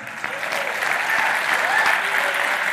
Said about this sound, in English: All right. People are cheering a little louder for Philadelphia because the football game later today doesn't matter at all.